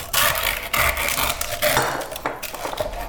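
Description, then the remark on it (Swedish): A knife saws through porchetta with a crispy crackling rind on a wooden board, with several crunchy scraping strokes in an uneven rhythm and no voices. “Det där var porketten jag skadade.”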